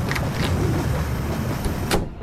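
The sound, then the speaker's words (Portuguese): A heavy train carriage door, opened by two people, rumbles as it slides open along its track, with a few metallic clunks along the way and a firm knock as it stops, fairly loud. “Arthur saltou e os dois abriram a porta do vagão.”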